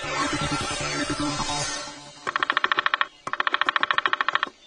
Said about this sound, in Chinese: 这个声音像是绯红金刚鹦鹉吗？No，那是一只啄木鸟。